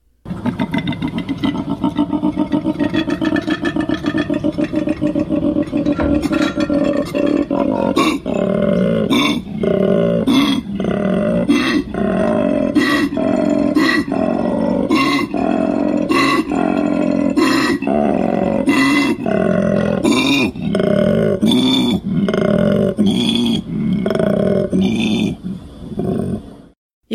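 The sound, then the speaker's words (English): A male koala's mating bellow, a loud, deep, rasping drone of snoring grunts that breaks into rhythmic, belching pulses, unbroken for almost half a minute. “The koala's mating call sounds like this.”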